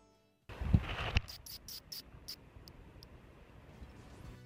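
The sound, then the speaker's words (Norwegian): A little brown bat, held in a gloved hand, tries to bite through the rubber glove: crinkling and handling noise, then a quick series of sharp, high-pitched squeaks and clicks that thin out over a few seconds. “Sånn høres den ut hvis du holder den fast i en hanske mens den prøver å bite seg gjennom gummien.”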